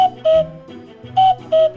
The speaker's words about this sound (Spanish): La respuesta es el cuco.